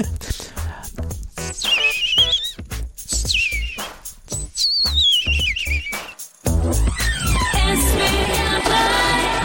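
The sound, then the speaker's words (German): A European robin sings a thin, high warbling song of quick rising and falling phrases, separated by short pauses, before a denser, busier burst of sound takes over for the last few seconds. “nehmen wir Rotkehlchen, das ist besser jetzt.”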